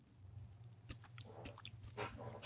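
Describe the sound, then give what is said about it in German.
A cat purrs, a low steady rumble running throughout, with a few soft clicks and rustling noises scattered over it. No one speaks. “Hast du ihn schnurren gehört?”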